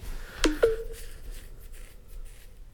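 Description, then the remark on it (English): A short two-note electronic chime from a phone, the second tone ringing out briefly before fading, followed by faint background rustling and quiet room noise. “Fuck was that noise, dude? Was that my phone?”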